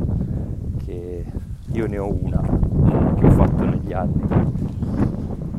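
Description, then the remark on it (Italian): A man talks in Italian outdoors while strong wind buffets the microphone, producing a steady low rumble and blustery noise that runs under his voice from start to finish. “E scusate per il vento, c'è un mucchio di vento adesso, però spero che se ne vada.”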